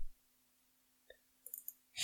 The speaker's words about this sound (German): Sag mal, hör doch mal die ganze Zeit auf, auf der Maus zu klicken, Junge. Ich klick nicht auf der Maus.